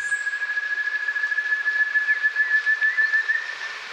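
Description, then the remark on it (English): A piercing, high whistled call from an ant thrush in Brazil's Mata Atlantica forest, dripping after a few days of heavy rain. The call holds a steady pitch for several seconds over a dense, pulsing hiss of forest background noise, with no talking. “Eloisa Mature recorded the piercing calls of the ant thrush”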